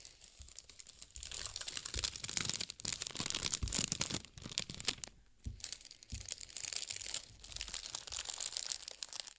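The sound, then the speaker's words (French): Continuous paper crinkling and rustling as a cut sheet of paper is wrapped around a toilet roll placed in its middle, with irregular crackles and soft crunches, briefly pausing midway before resuming. “Nous plaçons le rouleau de papier toilette au milieu et on l'entoure.”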